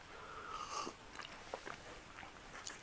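Chewing sounds of someone eating a homemade lunch, with soft wet smacks and crunchy bites repeating irregularly over about three seconds, fairly quiet with no talking.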